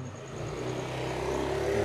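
A motorcycle engine drones steadily nearby, its low hum holding and swelling slightly louder toward the end, with no one speaking over it.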